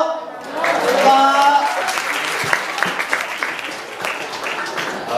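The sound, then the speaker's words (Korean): An audience claps steadily for several seconds, a dense patter of applause at moderate volume, with a voice briefly speaking over it near the start. “근데 민족 상치고 박수가 좀 작은 것 같은데 다시 할게요.”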